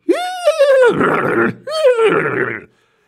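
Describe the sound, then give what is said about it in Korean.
A person imitates with their mouth, not a sound effect, a horse's neigh for a horse that refuses to cross a bridge: two loud whinnying bursts that start high and tonal, then waver and break into a rough, breathy rasp before cutting off. “근데 갑자기 말이 다리를 안 건너는 거예요.”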